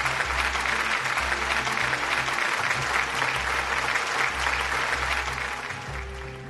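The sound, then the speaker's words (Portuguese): Sustained applause from a crowd, a dense steady patter of many hands clapping at an even loudness for several seconds, fading slightly at the very end, with a low hum beneath. “Muito obrigado e a salva de palmas aí para todo mundo.”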